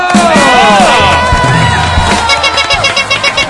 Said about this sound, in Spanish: Podrías decir gracias y te aplaudimos.